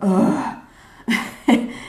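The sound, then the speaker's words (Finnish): A voice imitates sudden, sharp gasping breaths like those suddenly heard in a recorded video: a drawn vocal intake followed by two abrupt, loud gasps in quick succession. “Tai sitten just joku hengittäminen, että sieltä yhtäkkiä kuuluu,”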